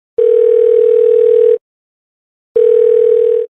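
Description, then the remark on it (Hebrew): A telephone ringback tone sounds as an outgoing call rings to a woman in Mbabane, Eswatini: two long, steady electronic tones, each lasting over a second, separated by a pause of silence, fairly loud and clear with no voices. “בואו נתקשר אליה.”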